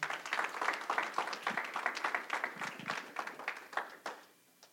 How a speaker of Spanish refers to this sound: Era un aplauso al Señor, hermano.